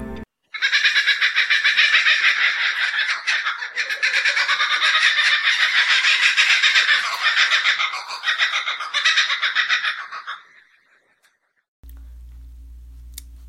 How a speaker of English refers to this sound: The answer to the mystery animal is a kookaburra.